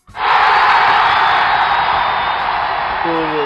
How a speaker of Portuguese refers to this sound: Palmas de novo, palmas de novo. Daí. Não, agora palmas é. mais fortes agora, né?